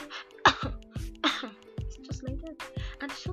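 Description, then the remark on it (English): A voice imitates a fit of asthmatic coughing: a rapid string of harsh, raspy coughs, fairly loud, with strained wheezy breaths between them and no talking. “And then you see them just they just keep coughing.”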